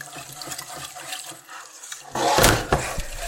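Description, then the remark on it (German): Soft scraping and light clinks of stirring in a pot taken off the stove, then a sudden loud, steady gush of milk being poured in while stirring, splashing continuously until the end, with the stirring still audible. “So, ich habe das jetzt beiseite genommen, nehme jetzt die Milch, schütte die unter Rühren da rein.”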